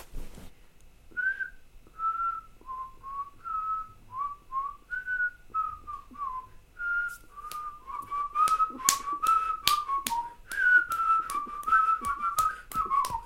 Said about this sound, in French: là, tu devines la chanson que c'est que je vais siffler. Tu sifflotes